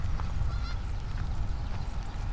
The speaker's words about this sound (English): We're on the north side of the river, on the back side of Cowtown. Across the river is McLean Boulevard, and you can hear the traffic in the background. But you can also hear the river, the birds, and our footsteps.